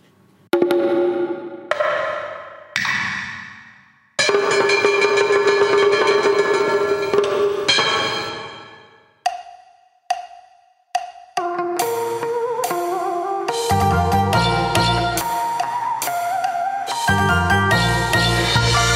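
Bright Vietnamese pop music, a COVID-19 version of a song, plays loud: chiming, tinkling synth phrases with brief pauses, then a full beat with bass kicks in. No singing or talking is heard yet.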